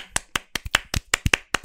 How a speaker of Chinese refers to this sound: 首先，我觉得在这一集先这个鼓掌先拍起来哈，鼓掌。